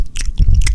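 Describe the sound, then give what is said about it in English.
A person imitates someone chewing food with their mouth open, producing wet, smacking and squishy mouth sounds in quick succession over less than a second, with no speech. “Um, if somebody's chewing, eating food and they're chewing with their mouth open, Ew.”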